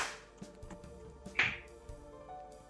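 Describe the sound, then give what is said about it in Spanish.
A few scattered hand claps, quiet and irregular, with one sharper clap near the middle. It sounds like brief, sparse applause rather than sustained clapping, with no voices. “Aplausos por eso.”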